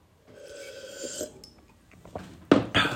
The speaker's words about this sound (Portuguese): vou beber mais um gol de água